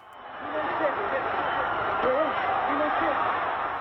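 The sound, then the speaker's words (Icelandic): A dense crowd in a town square at a mass rally held by Ceaușescu roars and shouts continuously, many overlapping voices forming a loud, steady wall of noise with occasional rising yells standing out; the shouts are not cheers and grow louder. Recorded by Romanian state television. “Hann áttaði sig á því þegar hróp og köll byrjuði að berast aftast af torkinu.”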